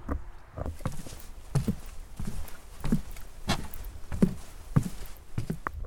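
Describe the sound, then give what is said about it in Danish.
Footsteps thud across a wooden bridge leading over toward a half ruin, in a steady, unhurried rhythm, each step a hollow knock, with a soft outdoor hiss behind and no talking. “Det man kan høre der, det er broen over mod halv ruin.”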